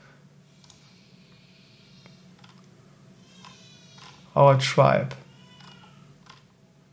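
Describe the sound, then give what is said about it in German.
A cat named Leo yowls loudly twice in quick succession, drawn-out and wavering, standing out sharply against a quiet hum with faint speech. “Oh, ihr hört im Hintergrund gerade Leo schreien.”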